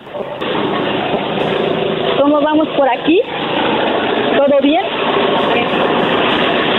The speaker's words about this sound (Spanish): te voy a preguntar cómo va la picadora que fui soldar. Porque con ella se está picando zacate ahorita, están trabajando.